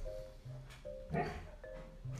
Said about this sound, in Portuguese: Tu tá ouvindo isso? Gente. É Raul sonhando, ouvindo, né? É. Gente, esse sonzinho de cachorro por trás é Raul sonhando.